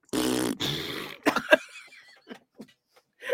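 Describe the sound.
A voice blows two long, buzzy raspberry sounds imitating a fart for the word "Browns", loud, followed by a few short breathy bursts like stifled laughter.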